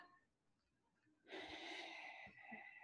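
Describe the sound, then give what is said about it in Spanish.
A loud rush of breath bursts in after a second of near silence, a long airy exhale lasting over a second with a slight snort-like edge and no talking. “esa respiración.”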